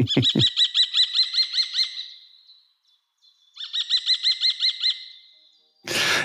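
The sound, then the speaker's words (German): A kestrel calls loudly, a rapid series of shrill, repeated kee notes that fades out, then resumes in a second quick burst, ending with a short rush of noise. “Dann verabschieden wir uns mit dem kleinen Schreihals, lassen ihn nochmal zu Wort kommen. Lassen ihn nochmal ertönen.”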